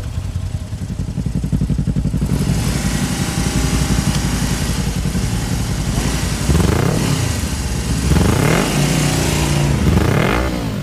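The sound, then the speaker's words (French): Two motorcycle engines rumble steadily before a race, ready for the referee's start signal, then rev up and down in rising and falling bursts, loud and continuous with no voices. “Les moteurs rondissent. Les deux motos sont prêtes à fuser euh, au signe de l'arbitre qui lancera la course.”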